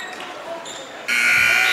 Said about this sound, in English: Buzzer sounded to finally end the JV game with Coldwater coming from behind to get the win 55 45.